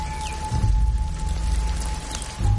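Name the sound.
rain falling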